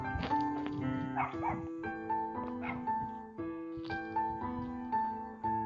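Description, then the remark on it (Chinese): A neighbor's dog in a rural village barks at night in a few short bursts, with some yips mixed in, over a steady tonal hum. Nobody speaks. “快。谁上麦啊？快！对，有狗叫。”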